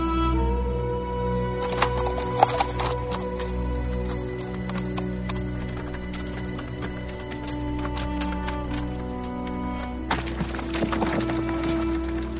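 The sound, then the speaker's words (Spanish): Donkey hooves clip-clop as a rider leaves on the donkey's back, a steady, uneven patter of sharp clicks over a constant low rumble and droning hum, with no voices. “Se marcha a lomos de un burro.”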